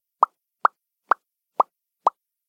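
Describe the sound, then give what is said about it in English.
Five crisp pops made by a person popping their lips, evenly spaced about half a second apart, clear with silence between them and no talking. “It was just me popping my lips.”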